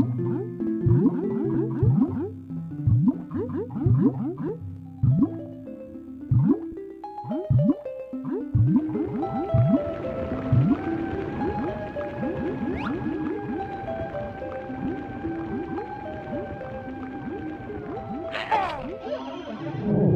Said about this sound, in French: Un design sonore quand on passe sous l'eau, fondu entre les pistes. On était dans l'air, on bascule sous l'eau, avec Banjo et Toei le Jolly Roger Lagoon.